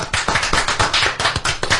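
Applause from a small group: quick, steady clapping from several pairs of hands, close and fairly loud, lasting about two seconds with no voices over it.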